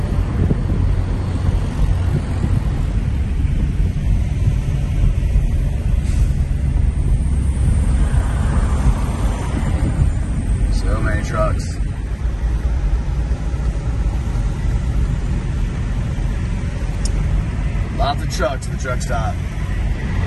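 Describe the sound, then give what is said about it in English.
Steady outdoor rumble of idling truck engines and passing traffic at a truck stop a couple of hours outside Chicago, signed as the largest truck stop in the world, with rows of parked trucks; constant and fairly loud throughout, with wind buffeting the microphone and a few brief higher-pitched mechanical whines. “The sign says it's the largest truck stop in the world, whatever that means, but uh, looks like it goes like four or five rows back.”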